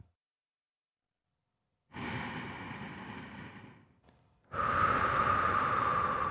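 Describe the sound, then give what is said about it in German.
A person takes a long, deep breath in, pauses briefly, then exhales heavily and audibly, each breath breathy with a soft rushing quality and no talking. “Wie verändert sich Ihre Atmung jetzt gerade, wo wir zusammen diesem Menschen hier beim Atmen zuhören.”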